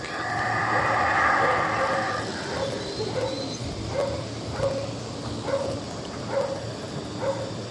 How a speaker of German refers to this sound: Und was man im Hintergrund jetzt hört, dieses undefinierbare, für mich undefinierbare Geräusch sind Brüllaffen, Howler Monkeys, die in Belize ich angetroffen habe.